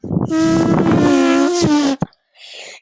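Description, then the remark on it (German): A hand pressed against skin makes a loud, sustained fart-like noise with a buzzing, flapping tone lasting over a second, followed by a short pop and a faint breathy hiss. “Nein, ich habe nicht gefurzt. Das war nur meine Hand.”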